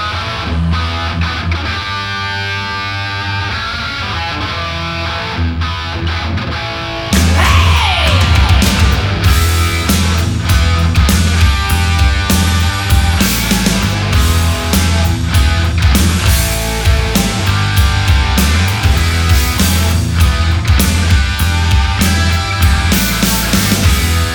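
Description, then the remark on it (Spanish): A loud rock song with driving drums and distorted guitars, a sustained keyboard pad sitting underneath; a quieter intro gives way to the full band after several seconds. No one speaks. “Se escuchan como unos teclados, ¿no? Como un colchón de teclados ahí en el fondo.”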